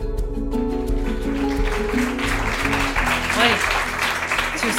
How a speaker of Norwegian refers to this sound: Eh, veldig stas å få applaus før vi engang har begynt. Eh, velkommen til Blå i Oslo og til denne liveinnspillingen av Sorgpodden.